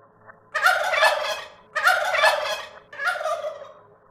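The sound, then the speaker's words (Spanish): A turkey gobbles three times in quick succession, each a loud, rapid, rattling burst with brief pauses between, heard clearly with no talking, at farms at dusk. “un gulgluteo que no podíamos distinguir de dónde venía.”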